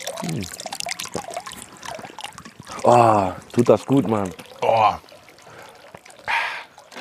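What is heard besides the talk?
water trickling and dripping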